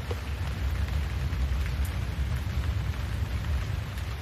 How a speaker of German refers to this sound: Langsam wandert deine Aufmerksamkeit von der Weite der Landschaft, die vor dir liegt, hin zu dem Regen, der dich umgibt.